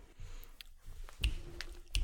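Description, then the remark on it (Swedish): Gum being chewed right up against the microphone: soft, wet smacking and squishing with a few sharper clicks spaced about a third of a second apart, and no talking. “Du, jag får nog spotta ut mitt tuggummi för jag känner att din man kommer halshugga mig om jag tuggar i mikrofonen.”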